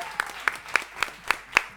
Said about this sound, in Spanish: Hola a toda la gente que está del otro lado también y que está aquí presente en el bar Min E. Bienvenido. Fuerte el aplauso para toda esta gente que ha venido.